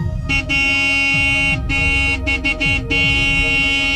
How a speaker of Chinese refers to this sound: 雪梨想要追着小男孩，却被身后的车。拼命地按喇叭，他不得不放弃了这个意图，返回车内开车走掉。